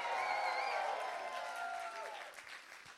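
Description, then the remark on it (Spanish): A church audience bursts into sustained applause mixed with loud shouts and cheering voices, giving a shout of victory at the preacher's call, a dense roar of clapping and overlapping cries that holds steady for a few seconds before easing slightly. “Si tú lo crees, dale un grito de victoria.”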